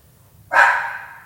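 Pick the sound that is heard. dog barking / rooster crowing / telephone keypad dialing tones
dog barking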